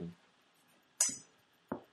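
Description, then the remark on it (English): Tequila is poured into a glass: a bright glassy clink as the bottle touches the rim, then a duller knock a moment later, with no talking. “I don't know why I'm pouring this in the glass.”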